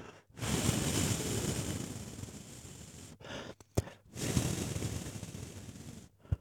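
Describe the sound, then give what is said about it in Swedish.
Someone blows air onto a hand in two long, steady, breathy exhalations with a short pause between, broken by a few quick puffs and soft clicks. Nobody speaks. “Ja, nu blåser jag här och hoppas att du når klimax här.”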